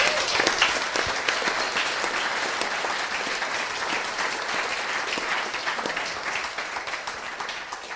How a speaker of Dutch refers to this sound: Allereerst complimenten, drie jaar clean. Super gedaan, jongen. Nog even één keer applaus voor deze meneer.